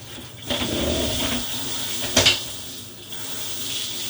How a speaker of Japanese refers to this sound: 私はね家に風呂がないんですよ風呂はあるんだけど何ていうのシャワールームしかないのだからねシャワールームに入っていきますよ私はシャワー出したらさ音うるせえかなまあいっか